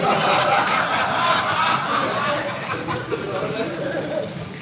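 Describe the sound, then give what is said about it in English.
A canned crowd laughter effect played from a soundboard runs steadily for a few seconds, dense overlapping chuckles and snickers at a consistent loud level, like a studio audience track. “I got to get a buzzer sound effect on my soundboard here. Um, here I'll give it laughter instead.”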